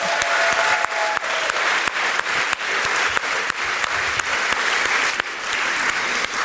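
An audience applauds steadily for several seconds for a man walking, a dense, even wash of clapping with no voices standing out, holding fairly loud throughout.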